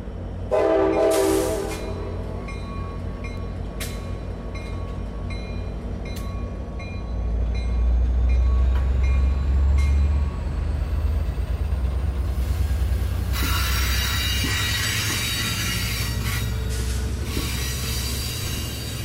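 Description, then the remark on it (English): An Amtrak California passenger train, its carriages bearing names such as Moonstone Beach, rumbles steadily past, its wheels clattering and squealing on the rails, with a brief horn-like tone near the start and a rising metallic hiss toward the end. “I've noticed that these Amtrak California trains have names on all the carriages.”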